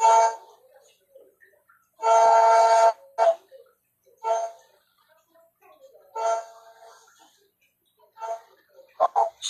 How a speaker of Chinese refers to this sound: 手机在响